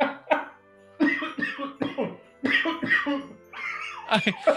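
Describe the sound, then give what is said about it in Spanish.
A rapid series of harsh, raspy coughs from a man in close succession, loud, with gasping breaths between bursts as he chokes, and no talking. “Por ese momento de tos horrible, el, señor se ahoga solo, no hay quien le palmee su Cuando, ya toses así porque ya te alcanzó, ya te alcanzó el óxido.”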